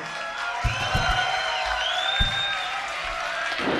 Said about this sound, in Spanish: Un aplauso para él.